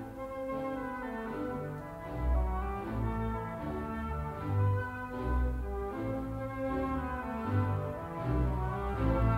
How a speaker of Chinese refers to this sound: 主题来喽，这个长笛。